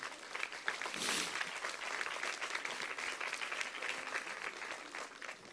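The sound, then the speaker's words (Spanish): An audience breaks into steady applause to the Lord, many hands clapping in a dense, continuous patter that holds at a fairly even level for several seconds with no talking over it. “¿Cuánto era un aplauso al Señor por eso?”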